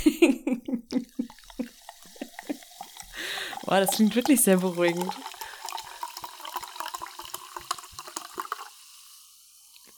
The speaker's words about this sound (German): Ich mach gerade mal kurz, ich mach kurz mal das Wasser auf. Hört man das geprickelt?